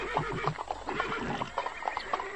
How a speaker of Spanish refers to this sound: Pero un día, orillando el valle, pitando detrás de una rocas, escuché gritos y pisadas de caballo.